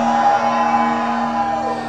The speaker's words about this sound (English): Now hold on. Now let all the people shout with a great shout.